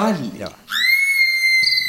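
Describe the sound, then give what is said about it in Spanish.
A short burst of voice gives way to a person's long, loud, sustained whistle imitating the call of the Silbón, which swoops up slightly and then holds a steady piercing note. “Claro, porque el Silbón le silba para llamarla y la Llorona llora porque no lo consigue.”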